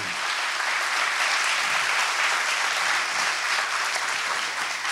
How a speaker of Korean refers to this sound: 박수 한번 좀 어. 부탁드리겠습니다.